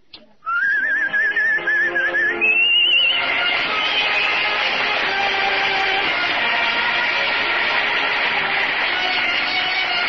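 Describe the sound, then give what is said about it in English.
A person whistles a short, wavering melody of a song for a couple of seconds, then loud, full band music from Duffy's jukebox takes over and plays steadily to the end. “Well, it's, uh, leave us no longer pretend. I better whistle it.”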